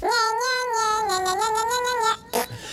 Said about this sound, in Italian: Allora, questo suono quando lo sentirete all'interno di una canzone. Con tanto di pernacchia finale.